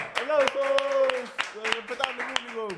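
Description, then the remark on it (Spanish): Scattered audience applause for the show's production team: a dozen or so sharp, uneven claps ring out while voices talk and call out loudly over them throughout. “Oye, ahora sí, chicos, eh, un aplauso de nuevo para el que se team que está produciendo esto.”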